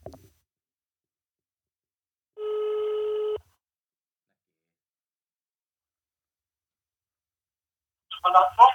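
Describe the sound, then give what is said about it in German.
A single steady electronic ringback tone sounds for about a second over a phone line as someone places a call, followed by a long silence before a voice starts talking at the very end. “Ich rufe ihn an und halte das, äh, das Telefon zu meinem und du redest einfach mit ihm.”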